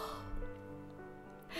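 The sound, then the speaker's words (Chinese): A voice imitates the yawn of a rabbit character in a narrated children's story: one drawn-out, voiced, sighing yawn lasting just over a second, with a breathy rush at the end, moderately loud and steady. “兔子打了个哈欠，也跟着睡着了。”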